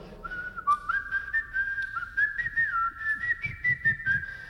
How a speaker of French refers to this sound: Et donc vous passez à côté en sifflant.